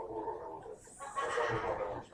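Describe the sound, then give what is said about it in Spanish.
A single voice mimics a donkey's bray, a loud, strained honking cry that rises and wavers for about two seconds, alone with no talking. “usted no perdona que alguien esté pecando y usted está rebuznando.”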